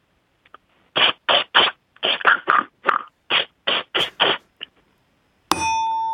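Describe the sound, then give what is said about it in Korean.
A voice imitates a spray bottle running low on water: about a dozen short, sputtering hissy spurts in an uneven rhythm, ending with a bright ringing ding. “물 부족한 분무기 소리를 내겠다 그거죠?”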